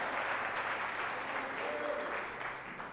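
An audience applauds for Jesus, a dense wash of many hands clapping at an even level for a few seconds before easing off slightly at the end.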